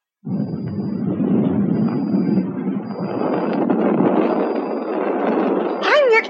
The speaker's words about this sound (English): It works! It works! Just look at the climb up there, my rocket really works! It's just like fireworks.